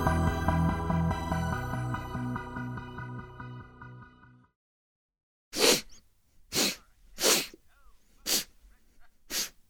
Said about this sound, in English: You know what's funny? I, I, I sniff, I sniff and I, I, always do something with my face. I don't need to.